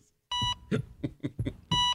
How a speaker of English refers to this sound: beep beep.